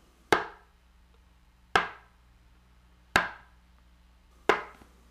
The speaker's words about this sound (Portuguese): O primeiro é o som de bater com o copo no chão, com a boca virada para baixo.